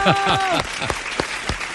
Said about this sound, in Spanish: aplausos. Aplausos, campeón.